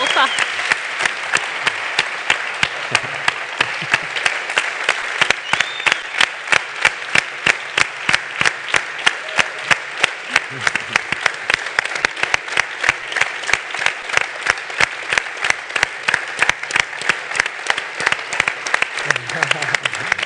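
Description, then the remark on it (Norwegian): Sustained applause from an audience at Imi-kirken in Stavanger, clapping for the church's long-serving leader, fills the whole stretch, a dense, steady patter of many hands clapping with no pauses. “Hvis du ikke fikk sjansen til å klappe for han i går, så kan du gjøre det nå.”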